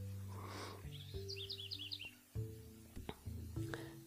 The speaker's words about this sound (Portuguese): Bom dia, junto com esse canto do, dos passarinhos aqui.